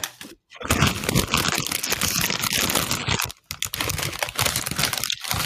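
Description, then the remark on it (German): Loud crinkling of a plastic chip bag mixed with crunchy snack sounds, continuous and busy with a couple of brief pauses, no voices present. “Ich würde jetzt einfach mal überlegen, ob er so Chips für mich gibt es nichts Schlimmeres, wenn ich einen Podcast höre.”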